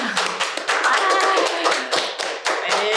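A short burst of steady applause from a small group for a guest, dense overlapping claps filling the full few seconds at a fairly loud level, with a faint whistle-like tone briefly rising through it.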